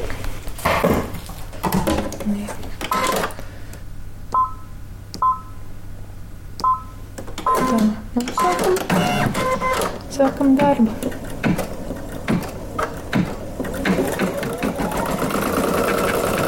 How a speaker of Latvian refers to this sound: Redzu pirmo reizi, ka šuvējs ieprogrammē šuju mašīnu un stāv blakus un pat nespiež ar kāju pedāli. Jā. Bet to dara šuju mašīna pati.